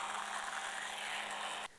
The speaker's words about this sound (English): And then I'm going to turn my sander and I'm going to use just the next grit, which is the fine, and then I'll move to the ultrafine.